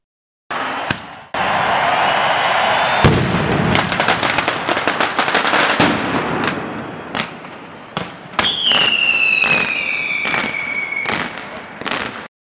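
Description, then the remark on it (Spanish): A mascletà during the Fallas in the Plaza del Ayuntamiento, Valencia: a rapid, thundering barrage of firecrackers bursts in dense succession, loud, with sharp cracks layered over a continuous roar and a shrill whistling tone rising through the later blasts. “Durante la mascleta se tiran estruendosos petardos que hacen retumbar el suelo durante 10 minutos.”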